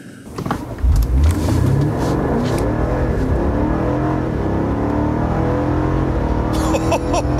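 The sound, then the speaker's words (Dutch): A powerful BMW M5 Competition car engine revs hard and accelerates, its deep roar climbing in pitch through repeated surges, loud and sustained throughout with no talking. “Je mocht op pad en test de nieuwe BMW M5 Competition.”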